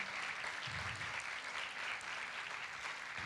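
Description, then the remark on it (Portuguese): An audience applauds God, a dense, even wash of many hands clapping at a constant level with no voices standing out. “Pode aplaudir ele que ele é digno.”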